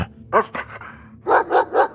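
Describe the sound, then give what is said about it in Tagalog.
A dog named Patrash barks sharply several times as it comes in through a kitchen door into a mansion: a couple of quick barks, a short pause, then three evenly spaced, louder barks in a steady rhythm, with no talking. “Binuksan ni Sara ang pintuan sa kusina at biglang pumasok si Patrash sa loob ng mansyon.”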